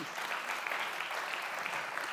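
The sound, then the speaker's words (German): A crowd claps steadily for the person who makes the speaker's presentation slides, a dense continuous patter of many hands at moderate volume with no pauses, sustained throughout the short stretch. “mal echt einen Applaus.”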